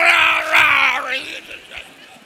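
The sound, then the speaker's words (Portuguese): A single loud lion roar, a rough, strained bellow that slides down in pitch over about a second before trailing off into a fading rumble. “Vai rugir o leão de novo.”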